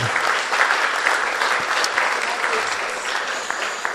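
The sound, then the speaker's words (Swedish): An audience applauds for Jesus, clapping steadily in a dense, even wash of many hands at a fairly loud level for the full few seconds, with no clear individual claps standing out. “Ja, ge Jesus en applåd för det också.”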